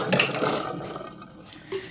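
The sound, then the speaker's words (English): Water splashes and swirls in a brief safety rinse of developed film, using filtered water with a drop or two of photo flow: a steady wet rush with faint clinks, fading slightly before a short burst near the end. “I'm gonna do one quick safety rinse here.”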